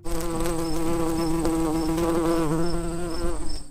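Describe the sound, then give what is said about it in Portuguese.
A fly buzzes loudly as it takes off, a steady droning hum with slight wavering in pitch that carries on without a break for several seconds. “Dito tudo isso, ouvidos atentos e cabeças abertas que a mosca vai decolar.”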